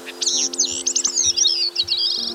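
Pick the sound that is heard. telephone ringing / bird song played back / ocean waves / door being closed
bird song played back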